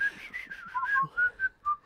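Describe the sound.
A person whistles a short melodic phrase of several clear, bright notes, rising and falling in a quick rhythm, moderately loud with no talking.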